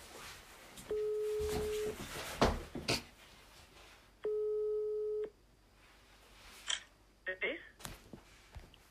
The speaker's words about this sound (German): Es, es klingelt, es klingelt.